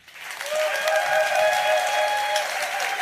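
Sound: audience clapping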